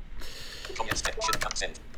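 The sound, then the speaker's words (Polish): A quick flurry of sharp keyboard clicks, like typing on a mechanical keyboard, fairly loud, with a faint synthetic-sounding voice running underneath. “Klikam send.”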